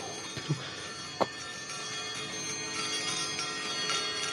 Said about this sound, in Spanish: De pronto escuchó, no sin terror, que la campanilla comenzaba a moverse y a sonar. Primero suavemente y repiqueteando con furia después, acompañada por todas las campanas que había en la casa.